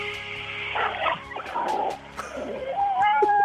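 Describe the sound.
A contestant in a radio show's voice-impression segment imitates the sounds of an underground parking garage at a large supermarket: a run of whining, squealing vocal tones that shift in pitch, ending in a long, steady high squeal.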